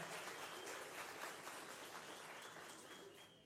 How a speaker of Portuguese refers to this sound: Vamos aplaudir esse casal, representando toda a equipe lá de Paraíba.